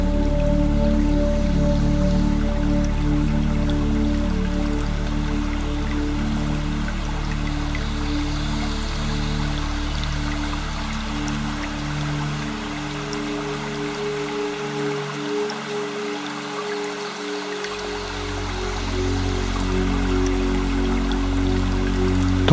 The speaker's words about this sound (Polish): szum małego strumienia ogrzewanego promieniami słońca.